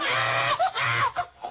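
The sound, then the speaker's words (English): Shrill pig squeals come in a quick series of loud, wavering bursts that rise and fall in pitch, with a low grunting rumble underneath and no talking. “The baby's turned into a pig.”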